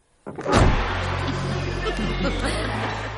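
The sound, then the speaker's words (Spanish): Walter gets into his car: a sudden thud, like the door shutting, gives way to a steady low engine rumble that carries on evenly to the end. “Walter se sube en su coche.”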